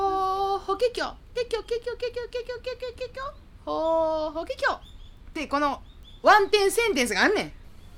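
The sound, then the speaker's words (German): A human voice imitates nightingale song: rapid staccato trills, then slurred whistled phrases and rising chirps in quick varied bursts, filling the whole stretch. “Eigentlich klingen Nachtigallen ja so.”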